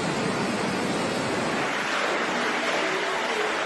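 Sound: rushing floodwater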